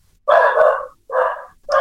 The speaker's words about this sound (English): Oh my oh, I'm so glad it's not my dog barking.